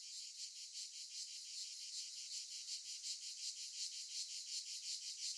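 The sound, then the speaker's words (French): A simulated tinnitus sound: a shrill, high-pitched buzzing like cicadas drones continuously with a fast, steady pulsing rhythm, fairly quiet and unchanging, with no voices or other sounds. “Ça ressemblait un peu à des cigales.”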